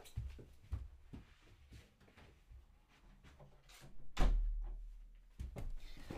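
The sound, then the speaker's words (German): A bedroom door swings shut with a solid thud, preceded by shuffling steps and small handling knocks, with a lighter bump just after; no one speaks. “Ähm, wartet, ich mach kurz mal die Tür zu von meinem Zimmer.”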